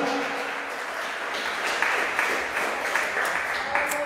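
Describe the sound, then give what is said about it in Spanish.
Sustained applause from an audience, a dense steady wash of many hands clapping at once, fairly loud and continuous throughout with no voices standing out. “Si va a aplaudir, aplauda fuerte porque Dios es lo que hace con tu vida.”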